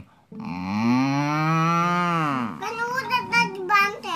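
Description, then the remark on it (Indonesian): A voice imitates a banteng's moo with one long, loud, drawn-out lowing call, followed by a few seconds of quick, lively talking. “ada juga Jangan mm. banteng”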